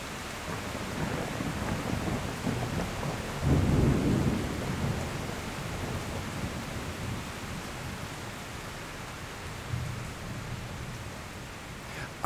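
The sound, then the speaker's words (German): Steady rain hisses throughout while low thunder rumbles, swelling into a heavier roll near the middle and a softer one toward the end. No voices, just the dense wash of a storm. “Einerseits sind das die diskontinuierlichen Landschaftslaute, die vor allem auf Wetterphänomene wie Sturm und Regen zurückzuführen sind.”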